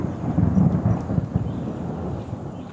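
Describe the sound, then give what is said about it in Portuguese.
A steady wash of heavy rain in the caatinga biome fills the scene while deep, rolling thunder rumbles low underneath, with no voices present. “a chuva chega, as plantas crescem rapidinho e as suas folhas também.”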